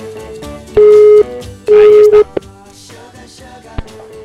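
telephone ringing tone

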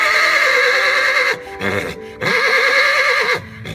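horse neighing

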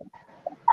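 dogs barking

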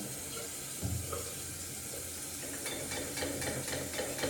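running tap water

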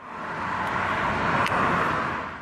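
road traffic noise

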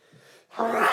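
sneeze

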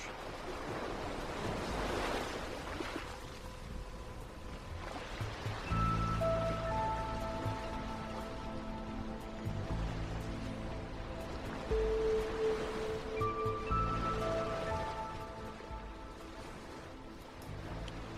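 sea waves washing ashore

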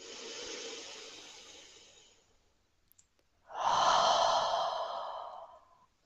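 deep breath in

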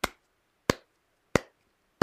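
hands clapping

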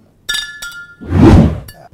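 glasses clinking

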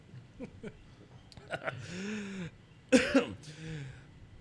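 coughing

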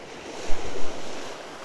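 ocean waves breaking

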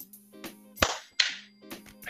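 two hand claps

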